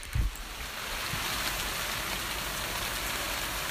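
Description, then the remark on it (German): Heavy rain pours down outside in a dense, steady hiss that fills the whole clip, with a brief low thump at the start. No one speaks. “Das klingt wie Niagara-Fälle.”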